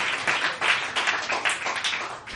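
A crowd applauds with steady, dense clapping that holds at an even loudness for a couple of seconds, many hands overlapping into a bright, crackling wash with no voices.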